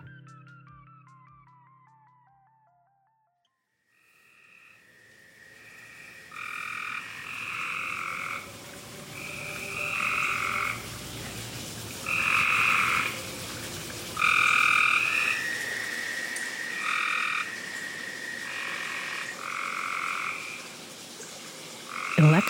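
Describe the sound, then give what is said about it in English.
A chorus of frogs croaking in Fayetteville, North Carolina, over a steady night-time din, with loud, nasal, buzzing calls repeating in short rhythmic bursts, several overlapping. “Here are those haikus, punctuated by frog sounds, recorded in Fayetteville, North Carolina”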